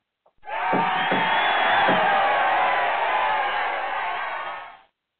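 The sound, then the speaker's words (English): A loud crowd erupts in cheering and whooping as the new year 2018 arrives, a dense sustained roar of many voices with a few sharper shouts near the start, holding steady for several seconds before cutting off abruptly. “We are now a few seconds away from the uh, new year, so everyone get ready to cheer with me.”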